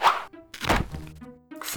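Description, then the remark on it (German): A ladder falls and clatters down in three loud, sharp knocks, each leaving a brief hollow ringing tone before the next impact. No voices are heard. “Oh Gott, jetzt ist die nach unten gefallen.”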